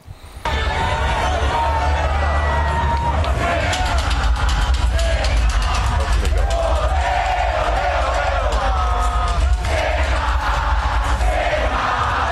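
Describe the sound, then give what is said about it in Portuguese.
A large Brazilian racetrack crowd shouts an ovation, cheering and chanting in unison, a dense, continuous roar of many voices with sung tones rising through it, steady and loud for the whole stretch. “E eu consegui gravar um momento das pessoas gritando, é, ovacionando, ovacionando cena, né?”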